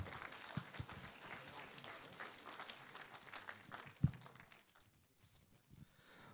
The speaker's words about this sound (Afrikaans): Baie welkom julle. Kom ons gee hulle 'n hande klap.